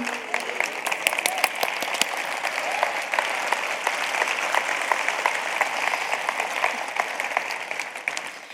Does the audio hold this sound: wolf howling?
no